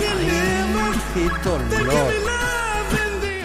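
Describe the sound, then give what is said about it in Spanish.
A chiptune version of a song from an 8-bit home computer: buzzy square-wave tones play a gliding, wobbling melody at steady volume, with a voice briefly speaking over it. “la versión está hecha con una Commodore 64 a 8 bits.”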